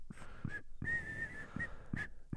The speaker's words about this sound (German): Er sprach kein Wort, sondern pfiff nur bedrohlich durch seine markante Zahnlücke.